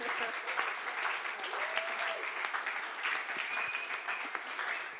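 An audience applauds steadily for several seconds, a dense wash of clapping hands, with faint murmurs and a brief whistle-like tone rising through it.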